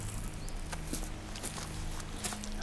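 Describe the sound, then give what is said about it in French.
Dry leaves and dry wood crunch underfoot in a slow, uneven series of crackling steps, over a low steady background rumble with no voices. “Ouais, le, craquement des feuilles et du bois sec.”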